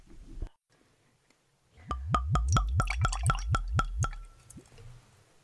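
Green Label sake glugs from a bottle into a glass in a quick run of about ten rhythmic gurgles lasting two seconds, clear, with a soft tap beforehand and no talking.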